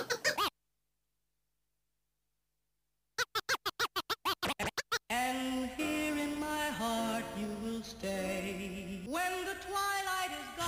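A hip-hop track starts after a short silence with a quick run of rhythmic turntable scratches, then the full beat kicks in loud and dense, with a melodic line riding on top.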